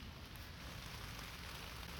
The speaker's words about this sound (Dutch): het begint iets harder te regenen, maar goed. Ik zit lekker onder een boom, dus een beetje verscholen.